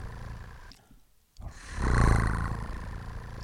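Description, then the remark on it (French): A voice imitates a cat purring: a low, rumbling, vibrating drone that swells loud after a short silence, then holds steady for a couple of seconds. “Elle a mis les six balles dans le barillet, puis elle le fait tourner Elgon s'est mis à ronronner comme un chat.”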